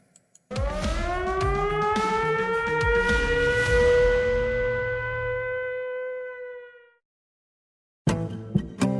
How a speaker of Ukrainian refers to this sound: Починається вона традиційно для цей виднограй традиційно для цього продукту сиреною, але це сирена записана. Не треба укриття, треба пильно прислухатися.